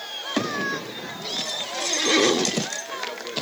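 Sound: horse neighing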